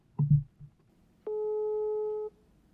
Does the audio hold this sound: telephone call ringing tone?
yes